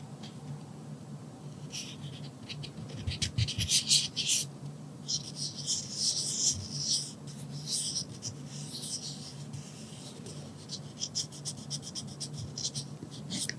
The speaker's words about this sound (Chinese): 纸这个是手摸纸的声音。